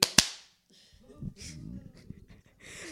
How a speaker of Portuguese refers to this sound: Uma salva de uma palma. Um, dois, três e...